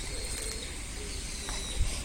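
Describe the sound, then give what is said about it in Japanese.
Birds call lively in the morning against a steady outdoor hiss, their faint chirps and coos overlapping through the whole stretch with no one speaking. “今朝も鳥が賑やかです。”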